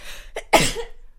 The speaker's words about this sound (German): wenn man niest, ist man ja einmal ganz kurz tot